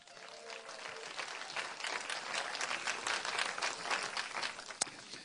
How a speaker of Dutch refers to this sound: Zullen we eens even een geweldig applaus geven, want ze zijn erbij.